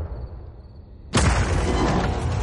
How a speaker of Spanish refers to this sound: De noche, Berlín, Alemania. Se producen varias explosiones en una base militar.